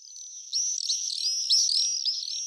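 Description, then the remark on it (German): Shrill, high-pitched screaming calls of common swifts, several overlapping trills sweeping up and down in quick succession, fairly loud and continuous with no voices. “nicht Amsel, Drossel und Co., sondern das ist ein Mauersegler.”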